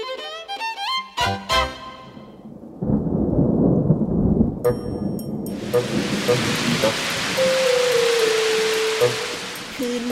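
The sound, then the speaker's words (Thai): A short bright musical jingle gives way to deep rumbling thunder, then a steady hiss of heavy rain pours down, loud, with a sustained tone gliding briefly over it. “วันหนึ่งฝนตกหนักลิงกับคางคบได้หลับฝนอยู่ที่ใต้ต้นไม้”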